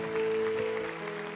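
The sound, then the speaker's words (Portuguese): An audience applauds the Lord during a church service, a dense crackle of many hands that keeps an even loudness throughout, while a sustained keyboard note hums underneath and fades partway through. “aplaude ao Senhor mais uma vez.”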